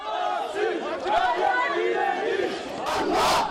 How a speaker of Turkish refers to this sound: Eylemin sonunda il binalarına slogan ve pankartlarla yürümek isteyen partililere polis müdahale etti. Müdahalenin sonunda partililer pankartları indirerek sloganlarla il binasına yürüdü.